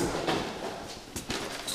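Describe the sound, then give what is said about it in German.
A security door opens with a few sharp metallic clicks and clunks over a steady hiss of background noise, moderately loud, with no one speaking. “Noch eine Sicherheitstür.”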